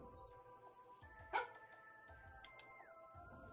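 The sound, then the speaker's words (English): A dog, Sandy, lets out a single short, sharp bark at something on the TV, over a steady low background of electronic hum and muffled sound. “She's barking at something on the TV, but I don't know what it is.”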